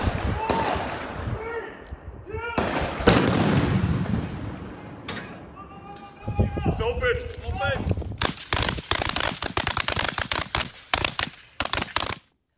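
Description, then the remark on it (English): Heavy booms of artillery fire and explosions from a military training complex beside a neighborhood in the town of Hoffman, North Carolina, with bursts of rapid gunfire crackling toward the end, loud and echoing across open ground, while faint voices can be heard in between. “In the town of Hoffman, North Carolina, residents are kept up at night with the sound of artillery fire and explosions as a result of the military training complex that moved into their neighborhood.”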